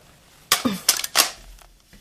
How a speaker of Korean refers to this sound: 정연인 마샤의 대답은 듣지도 않고 수화기를 내려놓는다.